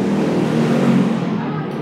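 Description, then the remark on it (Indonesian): A motorcycle passing by outside drones loudly and steadily, its low rumble holding for a couple of seconds with no one speaking. “basic motor anjir”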